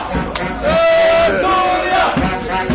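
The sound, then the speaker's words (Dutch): A crowd of Syrian football supporters at a tournament, walking to a stadium, chanting and shouting together, loud and continuous, with drawn-out sung tones rising above the dense wash of voices. “Er komen allemaal Syrische supporters nu aan.”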